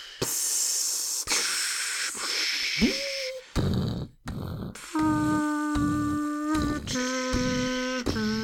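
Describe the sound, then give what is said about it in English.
A voice imitates what steampunk machinery would sound like, slow, pneumatic and smoky, with bursts of breathy hiss, sharp puffs, and a few droning, whistle-like tones between the hisses, all fairly loud and rhythmically uneven. “Steampunk would sound like smoke. It would be like.”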